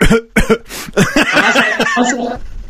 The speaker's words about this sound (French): Toussez, monsieur.